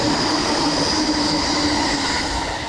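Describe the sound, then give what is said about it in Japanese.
A fast limited express train roars past, a loud continuous rush of wheels and rail noise with a high metallic whine sustained across the whole stretch, no voices, heard from alongside the railway line in Japan. “電車沿いから勘弁してなんかめっちゃくちゃ飛ばす特急みたいなのよく走りましたね”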